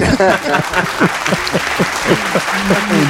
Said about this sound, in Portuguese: Uma salva de palmas para o tatame.